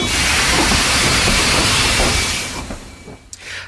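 A metro train moves off with a loud, rushing hiss and a thin steady whine, the roar easing after a few seconds into quieter clatter. No voices are heard.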